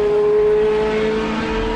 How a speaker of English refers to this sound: But above anything, the one thing that pulls me back here every year is the sound of the cars. Different engines, different categories, and different approaches to building a car that could race pretty much flat out for 24 hours